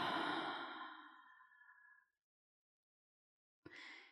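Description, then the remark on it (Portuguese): A deep breath: a long, airy exhale that fades out over about two seconds, a brief silence, then the rush of another breath beginning. “Ai, tomar uma respiração profunda.”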